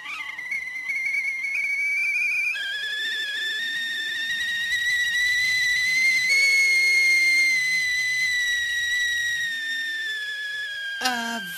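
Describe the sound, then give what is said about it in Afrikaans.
Steam from the spout of a kettle of boiling water whistles steadily and shrilly for about eleven seconds, its piercing tone slowly rising in pitch, loud, with a brief sputter of steam right at the end. “Op daardie oomblik sien jy 'n soort wit gas wat by die opening of tuit van die ketel uitkom.”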